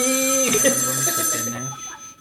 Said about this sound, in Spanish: otra vez el teléfono. El teléfono